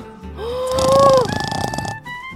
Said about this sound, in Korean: 와 진짜로 윗집 아저씨가 코를 고는 소리였습니다 방음 인테리어까지 했는데도 방음벽을 뚫고 나오는 거였죠